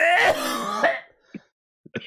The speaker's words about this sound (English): …'s coughing on the other end.